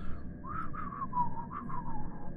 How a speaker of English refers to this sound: I can't whistle.